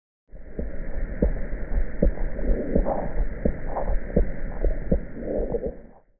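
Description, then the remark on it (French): A venous hum: a low, continuous hum with a steady throbbing pulse beating roughly once a second, muffled like blood flow heard through the body, with no voices. “Quoi qu'il en soit, chez certaines personnes, il est assez bruyant pour devenir audible sous la forme d'un son grave et pulsatile.”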